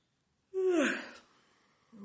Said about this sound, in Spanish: el bostezo es como parte del sistema nervioso que dice que se está regulando.